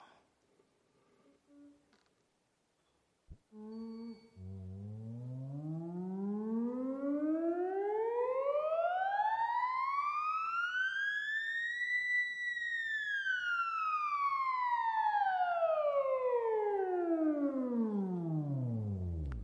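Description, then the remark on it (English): A theremin plays one long, smooth glissando as the player's hand moves relative to its pitch antenna, gliding steadily from a low hum up to a high, eerie whine and then sliding back down again, loud and sustained with no voices. “So when I come closer to the antenna, the pitch increase. I can just show you a simple glissando.”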